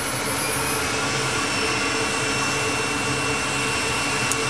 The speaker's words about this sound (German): Sieht aus wie ja, das Gehäuse von einem Computer. Also, hier unten ist der Motor. Oh, den hört man.